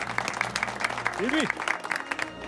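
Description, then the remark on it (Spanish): Steady applause from a small audience in the studio of RPA, the Asturias regional radio, welcoming the show's film expert: dense clapping that carries through the whole moment, with a brief rising-and-falling cheer cutting in near the middle. “Un aplauso para él. ¡Bravo!”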